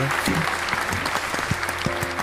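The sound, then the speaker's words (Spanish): A burst of audience applause, a dense steady patter of many hands clapping at once, with faint voices mixed in underneath. “Un aplauso, un aplauso, por aplauso,”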